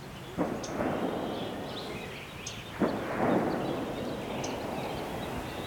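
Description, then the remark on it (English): Two gunshots from someone shooting guns in the mountains crack out a couple of seconds apart, each trailing off in a rolling echo across open country, with a steady outdoor hush and faint bird chirps in between. “And that's the sound of someone shooting guns.”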